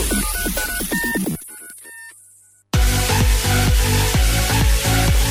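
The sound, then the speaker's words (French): A short radio station jingle: punchy electronic music with bright synth tones, a brief drop into near silence, then a loud rhythmic burst of beats. No one speaks. “Ok, on vous donne le temps juste après le jingle qui arrive maintenant.”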